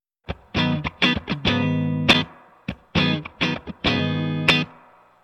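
An electric guitar played through a reverb pedal cranked up high plays a short riff of sustained, harmonically rich notes, then repeats it, each phrase washing out in a lingering reverb tail. Loud, with no voices.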